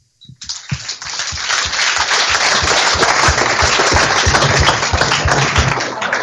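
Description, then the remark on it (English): A crowd at a Radio Newark Sport awards event breaks into applause for the Newark and Sherwood District Councillors, starting with a few scattered claps and quickly swelling into a loud, steady wash of many hands clapping that holds for several seconds. “You need to be applauded.”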